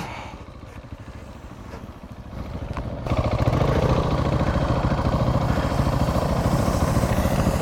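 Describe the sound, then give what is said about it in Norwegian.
A motorcycle engine idles with a steady, low, rapid throb, then jumps noticeably louder and rougher about three seconds in and keeps running evenly at that level. No one speaks. “Ja, da tror jeg jeg kjører opp, jeg, altså.”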